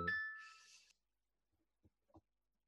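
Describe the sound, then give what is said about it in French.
A short, bright phone notification chime for an incoming message rings once with a shimmering tail that fades within a second, followed by a few faint soft taps in near silence. “Attendez, parce que j'ai reçu un message, je pensais que c'était vous.”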